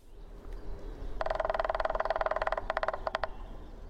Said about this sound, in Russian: Но ну, а большой пестрый у него короткая дробь, поэтому мы лучше покажем, как это делает зеленый дятел.